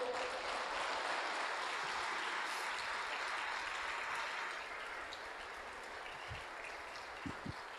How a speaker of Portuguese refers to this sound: Dê um aplauso a ele, vai, por favor.